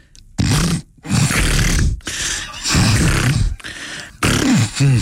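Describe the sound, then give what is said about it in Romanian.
A man's voice mimics an old dolphin's call in several rough, gravelly bursts with wavering pitch, loud, separated by brief pauses. “Și la mai bătân e așa.”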